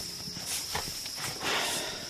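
Hooves of a single horse clop along in a steady, unhurried rhythm, growing slightly louder as they come closer, with a faint high hiss of background noise underneath.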